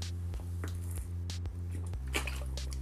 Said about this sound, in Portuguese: Só beber uma água no meio do podcast.